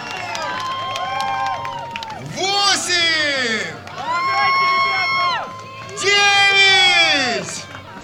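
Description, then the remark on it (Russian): A crowd cheers and claps in three loud, swelling bursts, with many voices shouting together; between the surges a voice calls out loudly. The crowd applauds as Federation Council member and Olympic athletics champion Tatyana Lebedeva does nine pull-ups on a horizontal bar. “Девять раз подтянулась на турнике под аплодисменты и раскаты грома член Совета Федерации, олимпийская чемпионка по легкой атлетике Татьяна Лебедева.”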